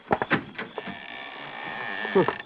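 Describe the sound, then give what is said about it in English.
An old door of a house that looks unlived-in for 20 years creaks open with a long, drawn-out, high-pitched groan that wavers for over a second, preceded by a few short thuds and ending in a brief rattle. “that door don't sound like it's ever been opened.”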